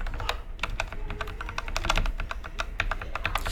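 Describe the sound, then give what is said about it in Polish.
Rapid, uneven clicking of mechanical keyboard keys being pressed, fairly loud, with a steady low hum underneath and no talking. “O, słychać przyciski? Tak.”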